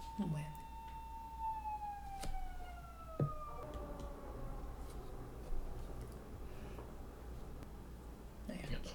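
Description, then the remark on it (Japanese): A Tamagotchi virtual pet's siren sounds after a grim reaper appears, a steady electronic wail that slowly slides downward in pitch over a few seconds before fading, with faint clicks and background noise underneath. “そうかやなんかそれをほっといたらっていうかまあそれが死神らしいんやけどもそれを見つけたらすぐにボタンをどれか押してあのめっちゃサイレンになってる。”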